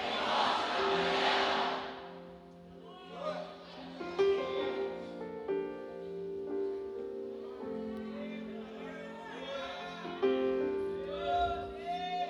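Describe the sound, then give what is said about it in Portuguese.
An audience shouts together in Portuguese the phrase "profeta, profeta, tem morte na panela" in a loud, brief burst of many voices, followed by sustained musical tones with voices continuing underneath. “Vocês vão gritar todos juntos em alto e bom som para aqueles que querem mudar de vida.”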